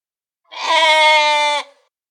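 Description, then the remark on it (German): A single sheep bleats once, a loud, quavering call lasting about a second, heard alone against silence. “Und naja, hier liegen wir jetzt also, meine Schlaflosigkeit, die Schäfchen und ich.”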